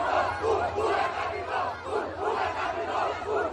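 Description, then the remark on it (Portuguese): A large crowd of Flamengo football supporters chants and cheers together, a loud, dense roar with a steady rhythmic pulse of voices rising and falling about twice a second throughout. “Isso aí é, é torcida, pô.”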